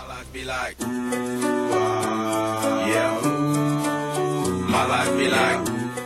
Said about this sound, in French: Écoutez. Vous l'entendez La musique.